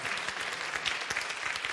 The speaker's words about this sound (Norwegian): Men disse står på uke etter uke etter uke og ønsker å utgjøre en forskjell i unge gutter og jenter sitt liv for Jesus sin del. Og det syns jeg fortjener en ordentlig applaus, for det er veldig, veldig bra.